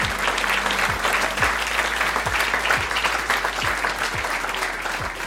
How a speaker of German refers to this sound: Guten Abend, Mannheim. Wow, Volle Bude, ausverkauft. In der alten Feuerwache in Mannheim. Auch noch Hallo draußen an alle Podcast-HörerInnen. Für die vielleicht auch nochmal schnell einen Applaus, dass sie, dass sie wissen, dass ihr am Start seid.